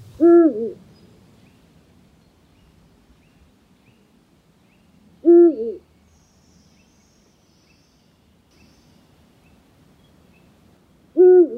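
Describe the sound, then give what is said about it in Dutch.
A Eurasian eagle-owl on the Veluwe in Gelderland gives three deep, resonant hoots spaced about five seconds apart, each a short two-part call, loud and clear against a quiet night backdrop with no talking. “op de Veluwe bij het Gelderse buurtschap 3 om te luisteren naar zijn verhaal achter het geluid van de oehoe.”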